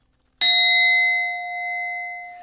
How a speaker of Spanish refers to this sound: En cuanto mayor sea el porcentaje de oro en el cuenco, más puro y nítido es el sonido. Mejor cumple su función. A veces es conveniente usarlos porque este sonido es difícil reproducirlo con la voz.